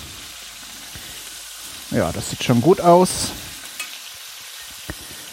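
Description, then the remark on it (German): Duck pieces, including thigh pieces, fry and brown on each side in a pan with a steady, crackling sizzle throughout, while a person speaks briefly over it midway and a faint click sounds near the end. “Die müssen eben eigentlich nur auf jeder Seite so ein bisschen bräunen.”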